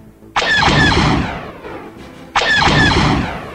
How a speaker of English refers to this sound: He squeezes the trigger, and the giant laser cannon, with a burst of smoke and electrical charge, opens up on the enemy craft.